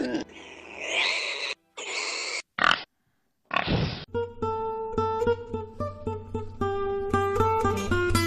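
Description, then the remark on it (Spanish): Pigs living on an uninhabited island in the Bahamas oink and grunt in a few loud bursts over the first few seconds, then the animal sounds give way to steady tuneful music. “Son los cerdos del paraíso que viven en una de las 600 islas deshabitadas que hay en Bahamas.”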